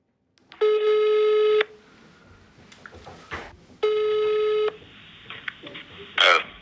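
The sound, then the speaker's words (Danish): Two long ringback tones on a phone line while calling a man, each about a second long with a pause between, steady and clear, followed by a brief click and faint line noise as the call connects. “Derfor ringer vi ham op en dag i november.”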